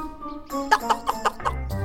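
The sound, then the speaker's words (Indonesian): Chickens in a coop cluck in a quick run of short bursts, about six in under two seconds, over a steady tonal background. “Ayam-ayam yang juga ada di kandang itu pun menakut-nakutinya.”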